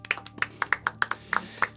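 A short burst of audience applause for a guest on a radio programme: a dozen or so sharp, crisp claps in quick, slightly uneven succession, moderately loud, with no talking over them.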